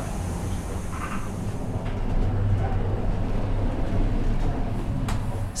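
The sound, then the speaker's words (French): The Bernina Express, an all-red train, starting to pull out of Tirano station bound for Chur: a steady, deep engine rumble with broad mechanical noise that swells slightly louder after a couple of seconds and keeps droning on. “C'est donc le départ du Bernina Express euh, qui part de Tirano et qui nous amènera à Coire.”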